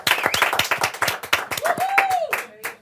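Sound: studio applause and clapping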